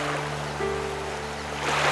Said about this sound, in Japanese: 水の流れが速くなってきたねこの水の音は何だろうあ滝の音だあの先にあるのはナイアガラの滝だ